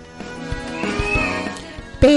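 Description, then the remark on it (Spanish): Upbeat video game soundtrack music with sustained melodic tones over a steady low beat, playing at moderate volume, with a louder vocal-like sound breaking in near the end. “Esto que oís de, de fondo es un host, es un de Toby Fox”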